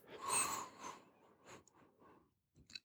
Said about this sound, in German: Was du stattdessen machen solltest, ist tief einatmen im Sinne von langsam und kontrolliert und in den Bauch und mit dem Volumen, ja, wie es sich für dich richtig anfühlt, sozusagen langgezogen.